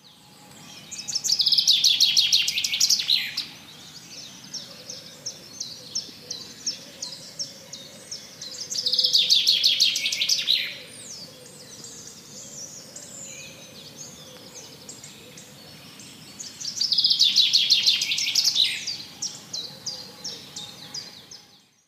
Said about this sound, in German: In diesem Moment stehe ich einfach nur da, betrachte den Vogel und lausche seinem bezaubernden Gesang.